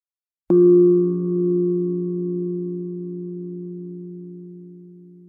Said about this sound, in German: Wenn der Gong der Klangschale einmal erklingt, dürfen Sie mit der Übung beginnen.